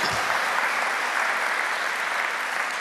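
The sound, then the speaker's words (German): Steady audience applause for two participants, a dense wash of many hands clapping at an even, sustained level throughout, with no voices rising above it. “Ein Applaus für die beiden hier.”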